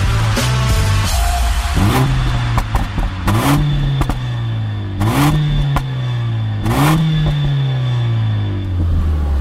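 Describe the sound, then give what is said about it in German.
The 2-litre four-cylinder engine of a Mercedes-AMG GLA 45 S compact SUV revs hard up through several gears, each rising pull broken by a sharp crackle or pop at the shift, loud with no talking. “die Krawallschachtel, die du da hörst, ist die Mercedes AMG GLA 45S.”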